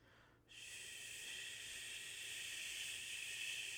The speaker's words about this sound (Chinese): 后来就听到了吹风机的声音